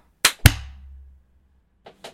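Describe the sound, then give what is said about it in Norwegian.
Sharp hand claps with no talking: two loud ones in quick succession, the second leaving a low rumbling tail, then a fainter pair of claps about a second and a half later. “Ja, men da ser vi at vi er i gang med tredje episode av sesong to på Nogen pluss med et klapp. Et skikkelig synkeklapp.”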